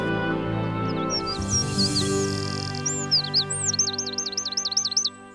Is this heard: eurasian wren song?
yes